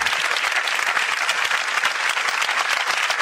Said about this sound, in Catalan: mentre començaven els aplaudiments als sanitaris a milers de balcons, desenes de metges i infermers de Sant Pau, amb llàgrimes als ulls, van sortir a la porta principal de l'edifici per fer-ne un de molt especial. És aquest que estem sentint.